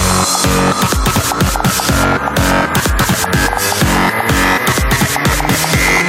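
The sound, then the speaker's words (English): Loud electronic dance music drenched in heavy distortion, with pounding kick drums on a steady beat and a dense, gritty, buzzing wall of sound filling every moment. “more distortion.”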